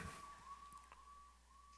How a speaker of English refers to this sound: What is that, Jeff? Is that an ambulance?